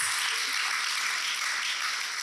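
An audience claps for someone healing from cancer, steadily, a dense, bright crackle of many hands that holds at an even level for a couple of seconds with no voices over it.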